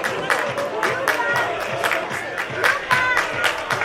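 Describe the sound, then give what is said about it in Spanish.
A football stadium crowd at a Spanish match involving Melilla roars steadily, with repeated rhythmic surges of shouting and clapping rising over the dense, continuous din of many voices. “Hombre, jaleo, ¿eh? Quizás no tanto como nos gustase, pero.”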